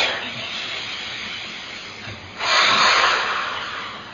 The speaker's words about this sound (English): And then again, first thing is always like breathing staccato. Huh? So you breathe in, let go of that thought.